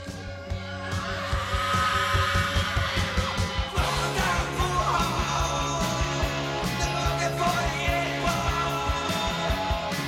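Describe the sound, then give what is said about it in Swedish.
A loud, driving punk rock track with shouted vocals, distorted guitars and pounding drums, getting fuller and heavier a few seconds in and keeping a steady, aggressive beat throughout. “Det är som en mashup. … och ….”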